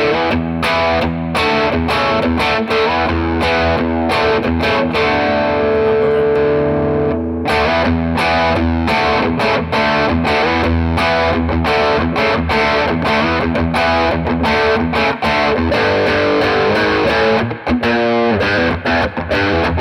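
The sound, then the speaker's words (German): An electric guitar on a single-coil pickup plays a loud, distorted lick, opening with a long sustained note before moving into choppy, rhythmic runs of bright picked notes. Nobody speaks. “Also nochmal vielleicht äh, zum Vergleich jetzt für die Hörer einmal mit Single Coil irgendwas, äh, so ein kleines Lick Genau.”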